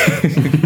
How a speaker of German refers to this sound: das war die Katze. Genau. Also diverse Geräusche hört ihr jetzt auch alle mit. Das habe ich ja vorhin schon erwähnt. Das war eine unserer zwei Katzen.